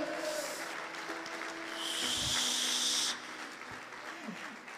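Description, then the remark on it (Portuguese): A crowd claps steadily throughout, applauding the Lord, a dense wash of many hands that swells louder for a moment midway before settling back to a softer, continuous patter. “Se você crê, dê um glória a Deus e aplauda o Senhor e adore-o.”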